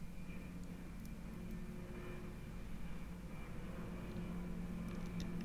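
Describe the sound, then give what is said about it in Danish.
A steady, low engine roar of an airplane flying over Aarhus, filling the background with a continuous rumbling drone that holds at a constant level throughout, with no voices present. “Og hvis du kan høre en hel masse larm i baggrunden, så tror jeg, det er et fly, der flyver over Aarhus, hvor jeg sidder lige nu.”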